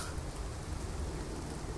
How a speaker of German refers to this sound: überlassen wir die letzten Sekunden dem Regen und dem Hubschrauber über uns.